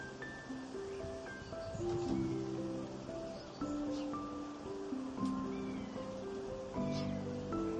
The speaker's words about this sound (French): Vous prenez le temps d'écouter le vent et les oiseaux dans les arbres un instant.